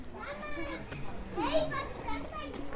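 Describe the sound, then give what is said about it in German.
A lively crowd of children chattering and shouting while playing outdoors, their overlapping high voices forming a steady, bustling wash of sound. “hier sind sehr viele Kinder”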